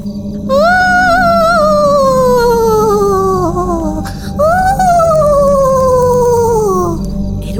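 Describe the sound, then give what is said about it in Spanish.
Two long, eerie howling shrieks of a ghostly spectre at night in a castle, each starting high and sliding slowly downward in pitch with a wavering, harmonic-rich tone. They are loud and sustained over a low rumbling background, with a brief gap between them. “Juan sin miedo se dispuso a pasar la primera noche en el castillo y esa misma noche le despertó un alarido impresionante.”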